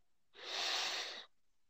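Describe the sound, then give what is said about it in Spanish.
A single deep breath drawn in, a steady airy rush lasting just under a second, fairly loud, with silence before and after. “Inhalá de nuevo profundo, inhalar de nuevo profundo, profundo, profundo, profundo, aguantar la respiración y solta lentamente.”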